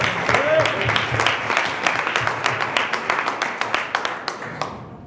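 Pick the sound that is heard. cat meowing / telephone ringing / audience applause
audience applause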